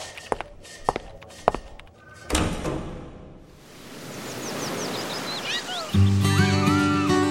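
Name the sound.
door being pushed open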